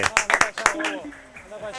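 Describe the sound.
A short burst of hand clapping, about half a dozen quick claps, fades after a moment as a voice carries on talking. The clapping follows a correct answer in a football World Cup quiz.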